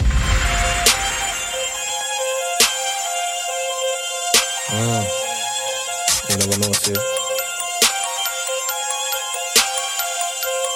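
A grime track's instrumental intro: bright, ringing synth tones over a steady bed, punctuated by sharp, loud percussive hits and a brief stuttering burst midway, with no vocals yet.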